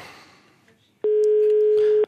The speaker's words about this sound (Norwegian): Tar, folk, tar ikke folk telefonen når det ringer telefonkioskene lenger?